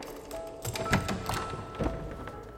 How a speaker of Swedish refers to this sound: Sten öppnade försiktigt den stora dörren.